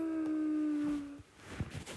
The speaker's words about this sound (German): Unsere Wölfe haben gekämpft.